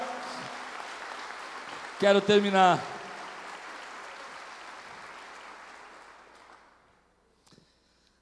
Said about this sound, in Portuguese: Quantos podem aplaudir o Senhor aqui, glorificá-lo? Aleluia!